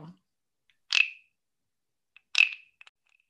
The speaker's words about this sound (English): Anyways, okay, what I grabbed was these wooden frogs. They're little sound frogs. Okay, ready? Can you hear it? Yes, it sounds frog like... sound.